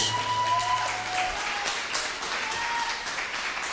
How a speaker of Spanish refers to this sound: Démele un aplauso a la palabra de Dios.